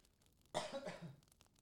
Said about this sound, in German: Warte mal, ich gehe mal weg und huste mal absichtlich.